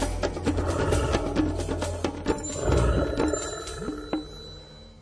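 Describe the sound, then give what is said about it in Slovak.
A western capercaillie cock's courtship song: a rapid series of sharp dry clicks and knocks with a scraping, whetting quality, over a low background rumble. “Traduje sa, že hlucháni kohút vo fáze brúsenia počuje o niečo slabšie a preto je možné sa k nemu priblížiť na 2-3 kroky.”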